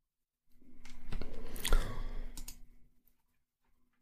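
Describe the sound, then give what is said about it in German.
A computer mouse clicking, a quick cluster of sharp clicks over about two seconds with a soft crunchy, rustling texture underneath, then silence. “Immer so deine Maus hört.”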